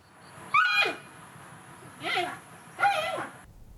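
A panda gives three short bleating calls, each a quick rising-and-falling squeal with a slightly nasal, harmonic tone, spaced about a second apart over a faint steady hiss.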